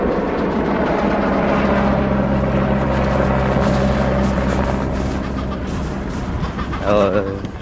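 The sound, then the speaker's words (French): Adélie penguins calling across a summer nesting colony: a loud, continuous mass of overlapping raspy, braying cries, with one sharper call rising out of the din near the end. “L'été, c'est la saison des adélie qui viennent nicher alors que les stars de cinéma, les empereurs et leurs poussins, eux, reprennent la mer.”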